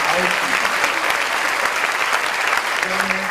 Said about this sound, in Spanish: Dale un aplauso.